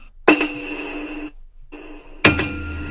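A battle gong is struck twice, each sharp, loud hit blooming into a long, shimmering metallic ring, with a brief silence splitting the first ring before the second strike.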